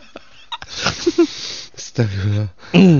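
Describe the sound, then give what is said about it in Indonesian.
Breathy noises at first, then a neighbor outside shouts in loud, drawn-out bursts, with the last call the loudest and most strained. “Uh, tuh kan tetangga sudah mulai teriak,”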